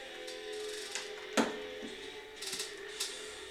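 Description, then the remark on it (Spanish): Headphones being pulled off: a sharp plastic knock in the middle, then a few light clicks and rustles, with no talking. “Ah, es que, neta, creo que me voy a quitar los pinches audífonos porque es lo que me está distrayendo mucho y aparte no escucho bien el nivel de...”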